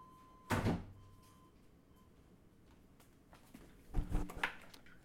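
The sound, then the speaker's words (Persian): A window is shut with a sharp, loud thud, followed a few seconds later by a second cluster of rattling knocks as it settles into place. “تا پنجره بستن صدا شد”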